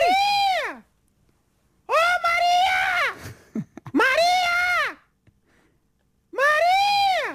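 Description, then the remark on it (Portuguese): A squirrel screaming in four loud, shrill, drawn-out cries, each rising then falling in pitch, separated by short pauses with a few faint clicks between them; no one is talking. “acho que é um esquilo que está a gritar Maria, mas também grita outros nomes”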